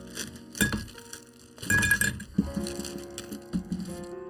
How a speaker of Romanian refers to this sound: Bun, acum urmează să punem niște gheață și această băutură se face exclusiv cu gheață cuburi. Avem gheață cuburi Ice Division, 2-3 cuburi e suficient pentru început.